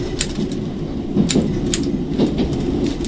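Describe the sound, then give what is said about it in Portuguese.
A railcar rolls along a century-old railway line, passing small places around Aveiro, with a steady, heavy low rumble, broken by a few sharp clacks at uneven intervals. No one speaks. “Nos primeiros quilómetros da linha, a automotora passa por pequenas terras em redor de Aveiro.”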